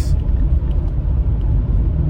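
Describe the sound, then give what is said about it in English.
Steady low-frequency road rumble fills the cabin of a moving car driving on the right-hand side of the road, a constant dense drone with slight fluctuations, fairly loud, with no voices. “this is unfortunately an update that I record from from the car as you obviously see, but it's quite unusual because I'm driving on the right hand side.”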